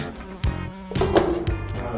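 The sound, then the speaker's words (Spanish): A fly buzzes, its drone wavering in pitch as it circles, with a couple of soft thumps and rustles in the background. “mosca.”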